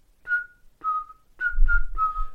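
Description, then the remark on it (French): A person whistles the tune from the film Kill Bill: five clear, sustained notes in a slow rhythm, with a low rumble joining under the last few notes. “Je vais faire un sifflement et tu vas me dire si ça dit quelque chose.”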